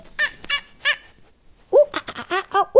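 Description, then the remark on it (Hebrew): A person imitates a monkey: three short, high squeaky calls, a brief pause, then a quick, loud run of excited chattering hoots. “אני מקווה שאני עושה קול של קוף.”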